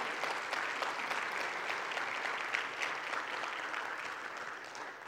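An audience claps together in a steady, sustained burst of applause, many hands producing a dense, crackling wash that holds for several seconds before easing slightly at the end.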